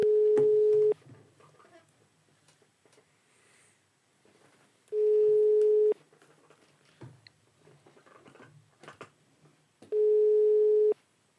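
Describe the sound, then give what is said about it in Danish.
A telephone ringback tone, heard while placing a call to Michael Kløvedal, sounds three times, each a steady one-second beep spaced about four seconds apart, with quiet rustling and faint mouth noises in the gaps between rings. “Okay, men lad os prøve at ringe til ham, øh, og, og se, om han ikke lige har tid til at, at snakke med os.”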